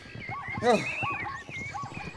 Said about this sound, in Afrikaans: Gaan deur die zebras af voor die lot van hulle wegkom. Ja, ja, gaan hulle. Nou is dit neusie verby. Ons gaan hulle nooit gevang kry nie.